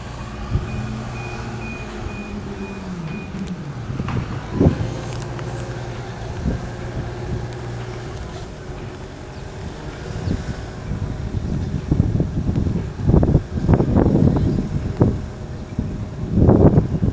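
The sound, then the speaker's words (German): A harbor soundscape: a steady low rumble of boat engines and wind noise, a faint high tone early on, and scattered knocks and bumps growing busier toward the end. No one speaks. “Die ist vom Hafen.”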